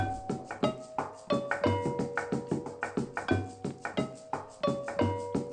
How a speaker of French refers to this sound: ou encore l'utsu, un petit clavier pentatonique qu'on entend ici.